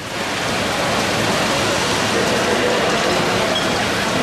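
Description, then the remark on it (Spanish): Steady, wind-driven rain falls on the street at La Campana in the afternoon of Martes Santo (Holy Tuesday), picked up by an ambient microphone; a dense, continuous hiss that stays even and fairly loud throughout, with no voices or other distinct sounds standing out. “Así llueve la campana a esta hora de la tarde.”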